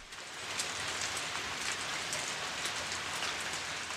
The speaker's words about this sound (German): Als ich die Firma Heunig verlasse, hat es angefangen zu regnen.